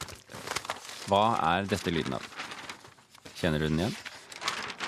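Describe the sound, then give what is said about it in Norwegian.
Pages of a broadsheet newspaper, the Vårt Land 70th-anniversary jubilee edition designed as the paper was in 1945, rustle and crinkle, being turned and handled continuously, while a voice asks short questions over the papery noise. “Dette er lyden av noen som blar i en fullformat avis, og det kan du kjøpe i dag.”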